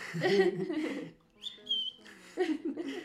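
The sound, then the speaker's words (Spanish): A brief, clear whistled phrase of a few high notes, the whistled main theme that opens a song, rises between stretches of talking voices, moderately loud. “Ah, me encanta que además empieza muy simple, ¿no? Con el silbidito.”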